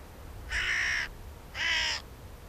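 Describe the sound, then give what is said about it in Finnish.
A hooded crow gives two harsh, raspy caws about a second apart, each lasting half a second, loud, with only a faint low rumble of background behind them. “Varis on kieltämättä yksi lempilinnoistani, mutta hiukan säröä on viime vuosina tullut yhteiseen elämään.”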